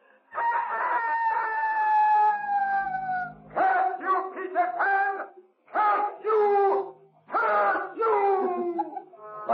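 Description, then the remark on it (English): A voice imitating a rooster's crow lets out Peter Pan's loud, taunting cry of victory from the shore: a long drawn-out call followed by several shorter warbling bursts in quick succession, clear. “And from the shore came Peter Pan's taunting cry of victory.”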